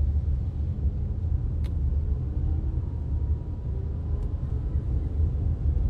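A steady, low engine rumble fills the inside of a moving car, with constant road drone and a couple of faint brief clicks; no one speaks.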